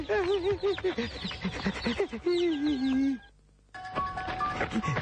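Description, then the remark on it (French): A large rooster, just caught after a chase, clucks in rapid, agitated bursts while being carried by a running person, breaking off into a brief silence before more squawking resumes, with steady high-pitched ringing tones underneath at the end. “ah, ah, j'ai réussi, j'ai le coq, j'ai réussi.”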